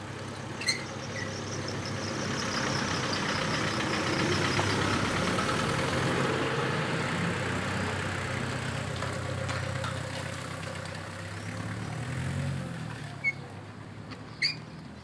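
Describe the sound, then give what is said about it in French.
A street cleaner's small hand cart, where he keeps his brooms, rolls steadily closer with a continuous gritty rattle over low traffic rumble, then comes to a halt with a couple of sharp knocks near the end. He cleans sidewalks and gutters and removes leaves; recorded on 30 June. “on entend sa, sa, petite charrette euh, où il pose les balais, tout ça, venir vers moi s'arrêter, je lui monte le micro et il repart en faisant.”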